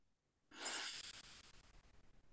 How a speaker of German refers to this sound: Ja, wir atmen gemeinsam tief durch die Nase ein